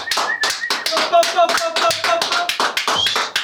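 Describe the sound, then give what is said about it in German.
A crowd claps steadily throughout, a dense patter of many hands, with faint whistles and cheers rising over the applause. “Eck, ist im Haus, machen wir Applaus.”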